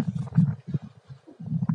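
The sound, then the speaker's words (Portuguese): Wind buffets the microphone in low, rumbling gusts that swell and drop irregularly, with a short lull midway before picking up again. No one speaks. “Ó, olha o vento aí.”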